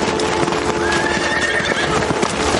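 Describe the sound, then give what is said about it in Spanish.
Horses whinny over a steady clip-clop of hooves as General Capel and his mounted soldiers ride through a snowy forest, the hoofbeats dense and continuous as several animals move together, with a rising neigh cutting through the busy, fairly loud scene. “Los generales montan a caballo.”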